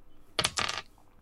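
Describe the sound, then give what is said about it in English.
A short clatter of dice rolled for damage in a tabletop game, tumbling across a tabletop in two quick rattling bursts lasting under half a second, then quiet. No voices are heard. “Roll for damage.”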